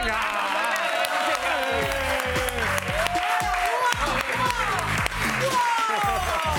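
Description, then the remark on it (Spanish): A large audience at a show, programme number 11, applauds guest Andrea Compton loudly and steadily for the whole stretch, a dense wash of clapping mixed with whoops and cheering voices rising and falling above it. “¿Otro aplauso? ¡Otro aplauso!”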